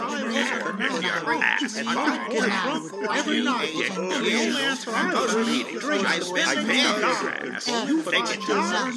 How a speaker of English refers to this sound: That's 90 old timers all talking at once. 90 hours of wisdom compacted into only 90 minutes.